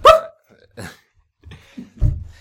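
A dog that has just joined the room: one short, sharp yelp at the start, then a few soft snuffling and shuffling noises and a low thump near the end.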